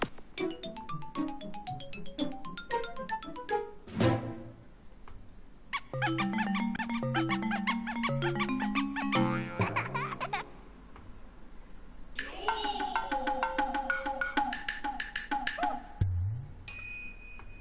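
A Nintendo GameCube startup sound: bright, bubbly synthesized chimes and quick bouncing electronic notes in several bursts, ending on a short jingle, loud and clear with no voices.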